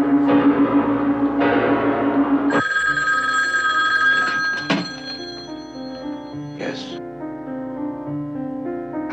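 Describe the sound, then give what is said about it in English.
An old-style telephone bell rings loudly in two rapid bursts, then cuts off, followed by sustained tonal sounds and a few soft thumps. “How'd you get this phone number?”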